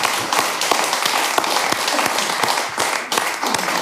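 A group of people applauding, steady dense clapping with many overlapping sharp claps at an even loudness throughout, no voices standing out.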